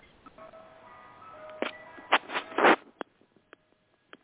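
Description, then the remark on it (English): A tinny Good Humor ice cream truck jingle plays faintly outside, its thin electronic melody drifting in the background while a few louder noisy bursts and clicks cut across it. “Uh, what's all that noise in the background? That's good humor, Doc.”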